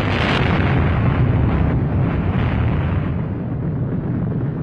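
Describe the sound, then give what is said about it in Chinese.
A massive Chinese atomic bomb explosion, from the bomb developed in 1964: a sharp bright blast at the start gives way to a loud, sustained, deep roaring rumble that churns steadily without fading, with no voices present. “然后，在一九六四年，原子弹也研制成功。”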